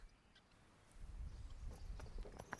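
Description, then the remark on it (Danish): Horse-drawn carriages come from the court in Ringsted toward Køge on a warm summer afternoon. The front carriage is drawn by two horses in red harness. Hooves clip-clop in an uneven rhythm over a low rumble of wheels, growing louder from a faint start as they draw closer, with no voices. “Man kan høre hestevogne, der kommer kørende fra landsretten i Ringsted mod Køge.”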